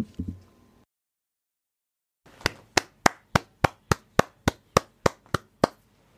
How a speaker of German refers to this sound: Standing Ovations?